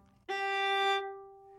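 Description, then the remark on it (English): A single bowed viola note, a steady G played with normal technique, held for under a second with a bright, full tone, then released and left ringing softly as it fades. No one speaks. “Or so my normal my normal technique of playing a G would sound something like this.”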